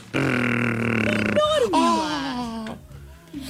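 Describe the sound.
A voice imitates an airplane engine while holding a Barbie toy airplane: a loud, buzzy, steady vocal drone that breaks into a gliding, falling whoosh, then trails off into rougher grunting noises.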